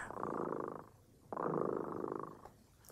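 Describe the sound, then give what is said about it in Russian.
The cat Tremota purrs in two long, steady rumbling bouts separated by a brief pause, a soft continuous vibrating hum with no voices. “Кот Тремота запел свою песенку. Это значит, что пора засыпать.”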